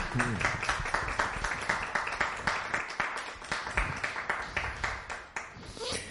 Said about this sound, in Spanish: Un aplauso para él, ¿no?